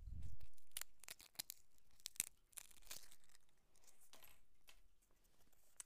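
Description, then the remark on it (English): A small plastic wrapper around an individually wrapped fortune is torn open, a string of sharp crinkling crackles and rips spread over several seconds after a brief low thump, with no one speaking. “They're all individually wrapped, which is pretty nice. So, let me just open it real fast.”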